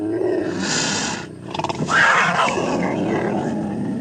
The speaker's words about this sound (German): Hatte er da nicht gerade Franzi brüllen gehört? Ja, das war die Stimme des Jaguars.